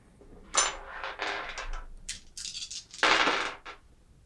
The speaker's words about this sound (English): I am rolling these dice forever. Four successes. that is a good number of successes.